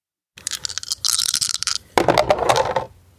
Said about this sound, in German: Gucken, was dann nochmal rauskommt. Nochmal drei Würfel?